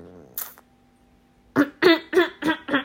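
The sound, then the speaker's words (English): One short, sharp throat-clearing sound, a pause, then a quick run of five stifled, voiced coughs in steady rhythm, held back rather than fully let out. “so I'm trying not to cough.”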